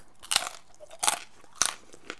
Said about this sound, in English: Yeah, I'm talking, but I'm, I'm moving around in a chair as I'm talking. I'm having a little bite of this thing here.